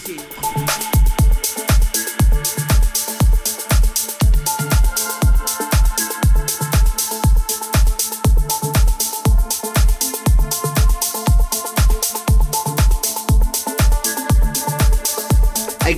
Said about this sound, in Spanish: Y hacemos una linda transición para saltar a un magnífico remix